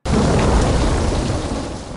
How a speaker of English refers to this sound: A storm rages outside